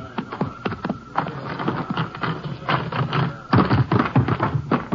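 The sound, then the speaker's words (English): Horse hoofbeats clatter in a fast, uneven run of sharp knocks, steady and fairly loud throughout, growing a little heavier toward the end, with no voices over them. “I'll get my horse and ride in with you ways.”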